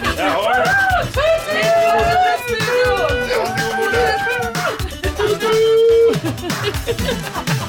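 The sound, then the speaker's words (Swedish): Several people run together in a line around a studio, their quick footsteps thudding while voices chant and whoop loudly in sustained, rising and falling tones throughout. “Tisdagståget går varvet runt i studion.”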